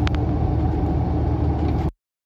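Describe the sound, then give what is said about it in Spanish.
A steady, low engine rumble and road drone inside a moving car, recorded on a phone by a passenger in the back, loud and continuous for about two seconds before cutting off abruptly, with no voices. “Aquí está mareada pasando el, el teléfono para que grabe el que va atrás en este carro.”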